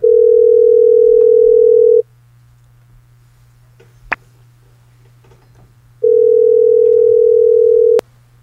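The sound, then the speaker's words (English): A steady telephone tone sounds twice as a call is placed, each burst about two seconds long with a long silent gap between, ending in a sharp click over a quiet line hum. “we're going to make the call now. Hopefully, she'll answer.”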